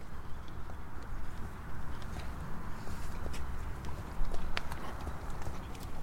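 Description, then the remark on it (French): Steady clip-clop of horse hooves on firm ground as the horse is being worked, a repeating rhythmic gait with sharp impact clicks over a low rumbling background. “Donc là, il obéissait pas correctement. Et donc, au lieu de m'énerver dessus, et puis euh, j'ai répété, répété, répété, répété, jusqu'à que le cheval accepte et finissent par le faire dans le calme.”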